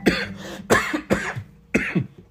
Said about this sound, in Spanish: Ópale, esto es como un, blooper. Es lo que le llaman. Bueno, tuve una tos ahí rara.